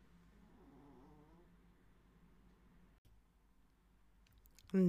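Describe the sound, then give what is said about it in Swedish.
Two small chihuahuas snoring softly in a bed nearby at home, a faint, steady low rumble with slight wheezy tones that continues without pause until a brief louder sound cuts in at the very end. “Och i sängen som är precis här i närheten ligger just nu två små chihuahuor och snarkar.”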